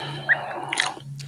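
Wet mouth chewing with squishy, smacking bites in quick succession, loud, with no one talking.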